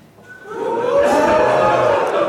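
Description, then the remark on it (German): A live audience makes a swelling wave of vocal noise, with low booing mixed into overlapping murmurs and shouts, rising after a brief quiet start and holding loud and steady. “Nicht ausbuhen, stopp nochmal. Nicht ausbuhen, nicht klatschen, nur Anwesenheitszeichen geben.”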